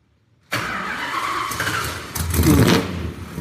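A car engine turns over and catches abruptly after a brief silence, then revs with a rising roar that swells louder near the end. Loud, with no voices.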